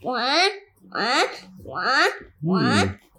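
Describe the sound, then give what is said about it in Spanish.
A voice imitates a duck-like alarm with four loud, evenly spaced honking calls, each a rising nasal 'wah' with short pauses between. “Sí, suena una alarma que sonaba así.”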